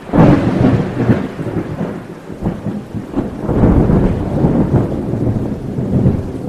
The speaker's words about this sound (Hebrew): גאו כל העם בבכייה וירדו גשמים.